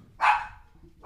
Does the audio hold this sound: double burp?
no